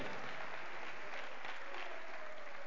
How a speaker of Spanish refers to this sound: ¿Cuántos dan un aplauso de alabanza, señora Amén.